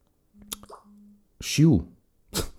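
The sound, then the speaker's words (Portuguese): A mobile phone notification goes off as two short, low buzzing tones with faint clicks, followed by brief bursts of a voice. “Eu, eu, às vezes esqueço-me de desligar o telemóvel.”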